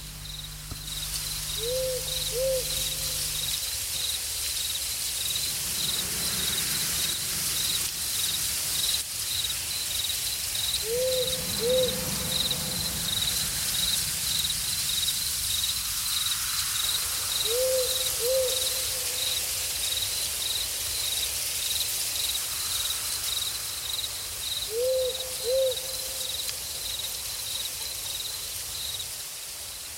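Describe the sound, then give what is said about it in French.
An owl hoots four times at spaced intervals, each a short double call, over a steady bed of night insects chirping continuously. No voices are present. “Les oiseaux nocturnes étaient en pleine chasse.”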